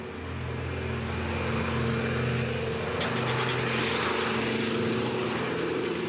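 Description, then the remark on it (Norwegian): Steady, loud drone of a propeller airplane passing overhead, a supply flight landing in Berlin during the Berlin Airlift, its engine hum holding throughout with a rushing, hissy edge that grows brighter partway through. No voices. “På det mest intense landet det ett fly hvert eneste minutt på byens tre flyplasser.”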